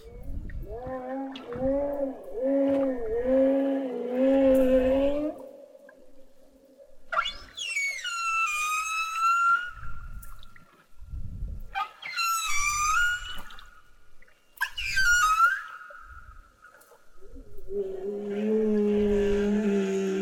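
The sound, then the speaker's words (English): Alaskan humpback whale song with pulsing low moans, then several sweeping high-pitched whoops and squeals, returning to a long low groan; loud, resonant and underwater-sounding, with no one talking. “for Brad Engelking and the Alaskan Humpback Whales, thanks for listening.”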